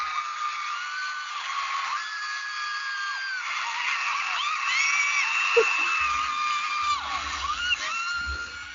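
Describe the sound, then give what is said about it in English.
A dense wall of high-pitched concert crowd screaming and shrieking as the singers come out fills the whole stretch, loud and continuous, drowning out the singing, with only faint hints of music buried underneath. “You can't even hear them singing. You cannot. So I'm not gonna lie, some of those scre- screams were us.”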